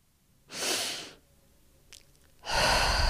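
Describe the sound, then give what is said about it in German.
Slow, deep belly breathing: a long airy inhale through the nose, a pause with a faint click, then a fuller rushing exhale beginning. No one speaks. “Und wenn ihr in, über die Nase einatmet, dann atmet in den Bauch rein und so wölbt sich der Bauch nach außen und ihr nehmt Luft in den Bauch ein und atmet dann wieder raus, atmet wieder aus und der Bauch zieht sich wieder ein”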